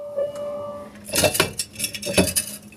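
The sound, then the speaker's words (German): A small fire extinguisher is pulled from its wall mount at a flight attendant standard station by door three left in a flight attendant training simulator: after a quiet hum, a quick cluster of sharp metallic clanks and rattles, moderately loud, with no one speaking. “Wir holen uns jetzt einfach mal einen Feuerlöscher.”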